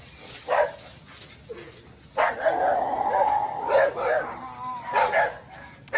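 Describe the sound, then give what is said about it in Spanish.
Several dogs bark and yelp excitedly in total darkness, their barks overlapping in restless bursts with a brief whimpering whine, against a quiet night background; the dogs are agitated, wanting to know what is out there. “Ahí es donde ellas, donde se escuchan las, los lamentos escuchar los perros, cómo, cómo se, se, desesperan y, quieren saber qué es lo que anda ahí.”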